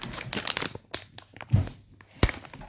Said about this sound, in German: Ah, oder ich, äh, oder ich zerbreche Schokolade. Das ist auch nice ASMR.